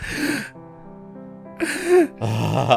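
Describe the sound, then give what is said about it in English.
A person imitates a woman's sharp, breathy gasp, drawing in air audibly a few times in quick succession, fairly loud, with a short quiet gap between the first and later gasps. “she would gasp.”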